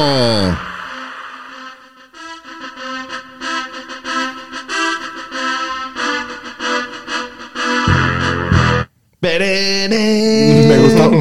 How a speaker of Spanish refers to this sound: Me gustó, ver cómo estábamos escuchando el drop y todos estábamos moviendo la cabeza al unísono. pero nada más me dejó con ganas de la explosión ahí.